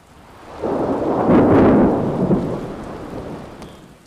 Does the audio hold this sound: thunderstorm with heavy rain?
yes